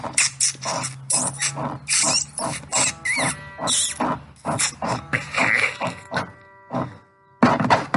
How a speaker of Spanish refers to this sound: Mientras se oía como que algo, algo ruía. Cosa que ya no le empezaba a gustar. Aún así, tenía que saber de qué se trataba. E empezó a inspeccionar. Empezó a seguir aquel ruido, aquellos gruñidos.